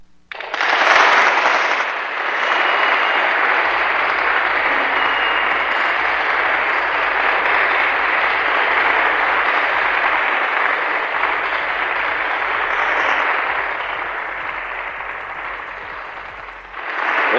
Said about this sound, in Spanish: Colegio Canicuoba de Vigo, la niña de primaria. Aplausos, por favor.